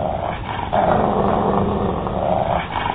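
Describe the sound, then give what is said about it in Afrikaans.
An angry dog growls low and steadily for a few seconds, a continuous rumble that swells louder midway and stays menacing throughout, with no voices. “Die kwaai hond maak sy bek wyd oop en Doortjie sien sy lang skerp tande.”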